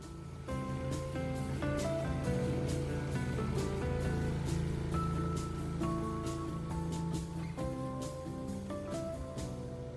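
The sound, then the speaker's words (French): A boat's engine drones steadily and loudly as it heads out to sea at first light, the sun still low and the water flat and calm. It is a continuous low rumble with tonal hum and occasional knocks, with no voices. “C'est parti, on prend la mer et là c'est magnifique, le soleil est encore bas l'eau est, plate, une mer d'huile, donc on se dit que on a peut-être une petite chance de faire des bons enregistrements.”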